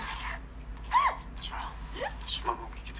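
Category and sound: human body sound, hiccups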